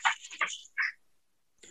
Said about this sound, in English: yeah, my dog's all worked up. Sorry.